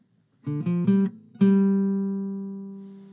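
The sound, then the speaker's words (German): A small kitchen egg timer rings as ten minutes of cooking a pot on the stove end: a few quick, bright bell strikes, then one last ding that hangs and slowly fades away, with no other sounds around it. “Meine kleine Eieruhr hat gerade geläutet.”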